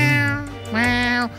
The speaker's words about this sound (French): Moi, c'est mon chat à 2 h du matin, ça. Ah, c'est des chats, c'est nocturne.